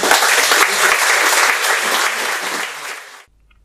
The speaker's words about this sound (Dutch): Ik zou zeggen, geef hem nog een hartelijk applaus. Dankjewel.